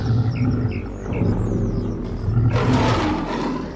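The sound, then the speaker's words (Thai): A lion roars loudly, a deep rumbling growl that swells and surges over several seconds, rising to a harsher, brighter bellow near the end, with no talking. “สิงโตมโนชาทำหน้าที่ดูแลครอบครัวเป็นอย่างดีเสมอมา”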